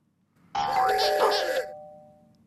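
A doorbell rings with a clear two-tone ding-dong, loud, its chime ringing on and fading out gradually after the strike.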